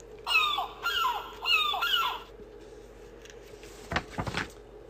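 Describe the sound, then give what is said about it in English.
A seagull gives four quick, harsh squawking calls in a row, loud, followed by a few faint clicks and taps after the calls stop. “Oh, oh, oh, and the seagull looks for water.”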